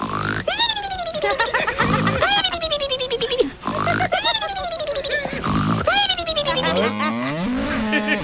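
A man snores loudly and steadily while asleep in his chair, each breath a rough, piggish rumble that rises and falls in a repeating rhythm, with no talking over it.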